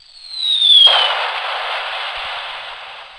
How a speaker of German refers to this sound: Soll eine Rakete sein.